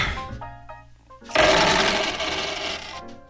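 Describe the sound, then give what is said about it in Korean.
A customer throws a handful of coins onto a convenience store counter: a few early clinks followed by a loud, sustained jingling scatter that rings out and fades near the end, with no one speaking. “손님! 왜 동전을 던지세요?”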